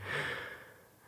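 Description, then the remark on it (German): A single deep, airy breath drawn in, a soft rushing hiss that swells quickly and then gently tapers off over about a second. “Jetzt muss ich tief einatmen kurz.”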